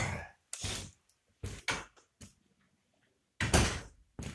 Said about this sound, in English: So I'm gonna go close our front door. It's a little breezy.